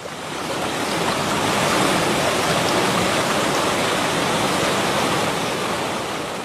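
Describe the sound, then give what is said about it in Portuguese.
A steady, continuous rush of flowing spring water, fairly loud, with no voices, holding an even, unbroken texture from start to finish. “Porque a nascente d'água é a coisa mais importante que nós temos no planeta Terra.”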